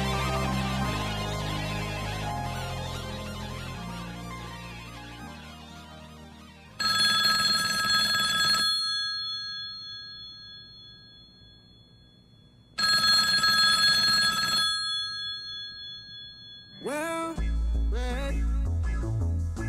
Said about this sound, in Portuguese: Mais cedo, meu telefone tinha tocado.